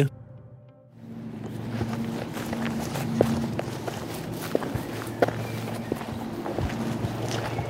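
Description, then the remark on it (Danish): Footsteps walking down through a small wood in Denmark, a steady series of crunching, rustling steps over a low continuous rumble, with a few sharper snaps standing out along the way. No one speaks. “Skal vi gå ned gennem skoven?”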